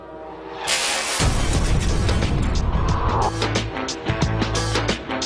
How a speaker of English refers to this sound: Enter the busiest train depot in the country, Penn Station.